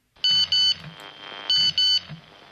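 A mobile phone text message alert beeps as a text message is received, in two quick double bursts, each pair of shrill electronic tones repeated about a second apart, loud over a faint background hum.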